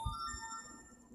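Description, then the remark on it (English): A mobile phone ringtone sounds briefly, a steady set of bright electronic tones held for about a second, fairly quiet, with a couple of soft low thumps at the start. “That was my phone.”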